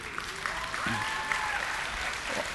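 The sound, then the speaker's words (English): An audience breaks into steady, sustained applause at mention of a couple's 50th wedding anniversary, a dense wash of clapping with a few faint cheers or voices rising above it. “actually, I wasn't, I wasn't trying to get applause, but I mean, I know I look old enough to be married for 50 years.”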